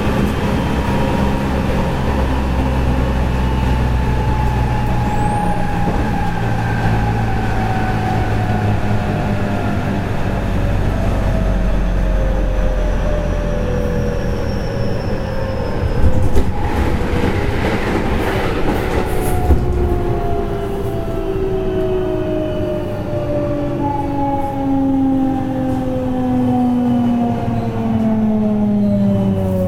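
A JR 207 series commuter train running from Amagasaki to Sumiyoshi, with a continuous low rumble, rhythmic rail clatter, and long gliding motor whines that slowly fall in pitch, plus a brief burst of louder rattling midway.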